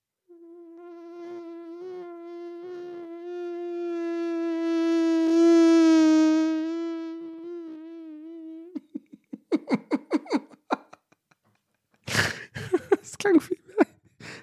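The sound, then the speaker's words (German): A voice makes a long, steady buzzing drone meant to imitate a rolling walker, though it sounds like a fly; it swells louder midway, then gives way to choppy talk and laughter. “Ich wollte eigentlich das Rollatorgeräusch machen.”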